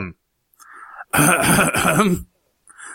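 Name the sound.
throat clearing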